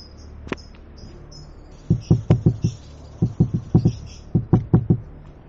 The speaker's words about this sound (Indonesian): Pintu kamar Marni terketuk sangat keras. Marni tahu itu adalah Agus.